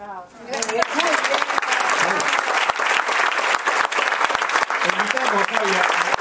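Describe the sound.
A crowd breaks into loud, sustained applause, a dense patter of clapping that continues for several seconds, with a brief voice at the start and faint voices mixed underneath.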